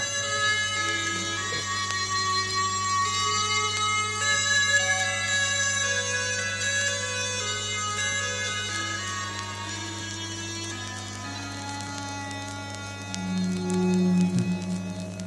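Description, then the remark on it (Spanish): Light vinyl surface crackle from an LP played live on air at Radio Utopía, faint scattered ticks and pops beneath a steady, droning layer of sustained tones, continuous for the whole stretch with no one speaking. “Como mola el crujido.”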